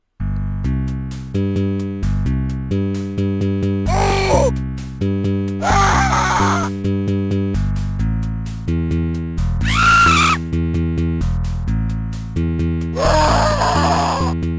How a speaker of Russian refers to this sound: И тут внезапно обрывается, и начинается какая-то странная композиция из жанра лифтовой музыки, которая сопровождается криками мучеников.